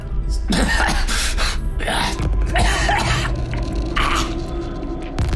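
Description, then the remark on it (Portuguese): Harsh, throaty coughing comes in repeated ragged bursts with strained, gasping breaths between them, loud over a low steady hum in the background. “Tosse de novo.”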